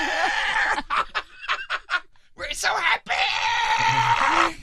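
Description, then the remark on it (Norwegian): A voice mimics harsh, raspy happy-metal-style scream vocals, shouting a short cheerful phrase in strained, distorted bursts that trail into a long gritty sustained scream, loud. “sånn skrikevokal.”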